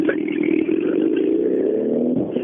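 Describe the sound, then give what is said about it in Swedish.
A rally car engine roars loudly, revving hard in a continuous snarl whose pitch drifts slightly downward as the car sweeps past. “Jag ja, jättefin bil den här. Är det någon... Jag kan det vara en Evo 6?”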